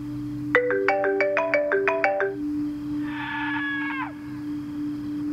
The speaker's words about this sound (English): I've been getting calls from Caden's phone over the last hour. I refuse to answer them